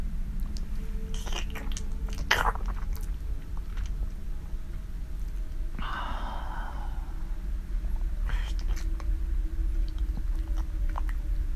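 Creepy wet slurping and smacking noises come in irregular bursts over a low, steady hum, with a breathy, sigh-like exhale partway through. Fairly quiet, with no talking.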